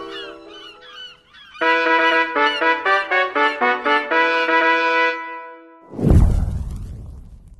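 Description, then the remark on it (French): Seagulls squawk loudly, a few cries followed by a rapid run of harsh repeated calls, then a brief whooshing burst near the end; gulls gathering on the quays of La Rochelle, France, as fishermen's boats come in to unload their catch. “Je suis l'une de ces innombrables mouettes qui se rassemblent criardes au moment où les bateaux des pêcheurs abordent et délivrent le produit de leur pêche sur les quais de cette belle cité de La Rochelle.”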